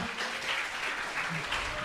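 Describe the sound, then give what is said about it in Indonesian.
A crowd claps steadily, a dense, continuous patter of many hands at an even level for about two seconds, with faint voices mixed underneath. “Ya Allah, tepuk tangan dong.”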